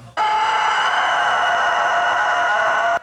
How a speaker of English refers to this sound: That's not Godzilla. That's a rooster.